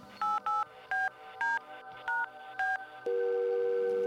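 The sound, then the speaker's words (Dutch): A phone number is punched in on a touch-tone keypad: six short, clear beeps in a quick, slightly uneven rhythm, followed by a steady, sustained line tone. No one speaks. “Ik belde.”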